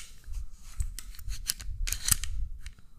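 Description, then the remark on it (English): Crisp metallic clicks and clacks of an HK handgun's mechanism being worked, several sharp snaps at an irregular pace over a low handling rumble, with no one talking. “I got my HK sitting over here. I, I just wanted to remind you, like what what ASMR HK sounds like.”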